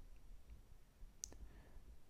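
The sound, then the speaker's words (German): A single crisp computer keyboard key press, on the bottom-left key, clicks sharply, followed almost immediately by a softer second tap, with faint background hiss and no talking. “Ganz unten links die Taste.”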